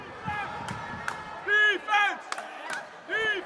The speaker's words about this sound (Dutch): Er wordt ontzettend veel gezongen, getoeterd en getrommeld. De sfeer is echt ultiem